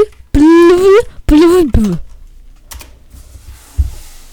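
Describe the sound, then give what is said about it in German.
A voice speaks briefly, then a few soft, scattered clicks on a computer keyboard follow, quiet, with short pauses between the keystrokes. “So, das C ist auf der einen Seite und das O auf der anderen Seite der Tastatur.”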